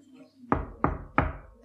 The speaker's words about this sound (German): Ich lausche! Und dann kam das Klopfen,